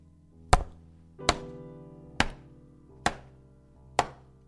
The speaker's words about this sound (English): I'm going to hit myself into the head with this book now, and you're going to hear an advert.